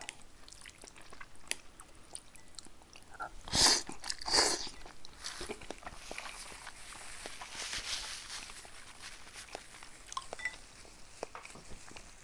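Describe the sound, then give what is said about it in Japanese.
Someone eating a bowl of Asahikawa-style soy sauce ramen: two loud, hissing slurps near the start, followed by quieter chewing and small clicking mouth sounds, with no talking. “旭川醤油だけど旭川かどうかはよくわかんないわ食べても。”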